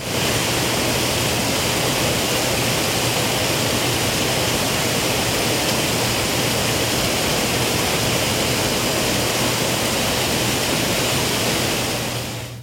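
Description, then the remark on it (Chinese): A waterfall in Xitou roars steadily, a dense, unbroken wash of rushing water filling the whole clip at an even, loud level before fading out at the very end. No voices are heard. “哦，是哦， 听听瀑布的声音。”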